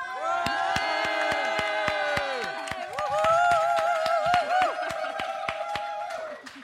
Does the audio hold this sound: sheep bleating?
no